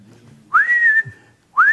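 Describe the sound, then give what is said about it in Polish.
Someone whistles in imitation of a singing bird: a loud, bright note sweeps upward and holds steady for about half a second, then a second rising whistle begins. “Ptaszek śpiewa, albo dziewka piękna, nie?”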